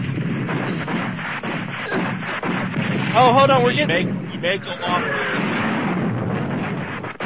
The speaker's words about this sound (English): You can talk over the explosions. They go off when I make a PR rep cry, but I'm doing it for the good of the gamers out there.